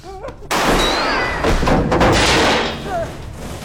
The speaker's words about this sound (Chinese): 但两人并没来得及互报家门，杀手赶到，直接开枪。